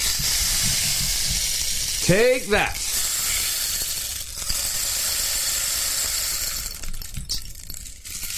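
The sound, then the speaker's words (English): A rainstick shaken continuously, its beads pouring in a steady, dense, hissing patter from start to finish. A man briefly speaks over it partway through. “Nothing like a good rainstick battle in the morning.”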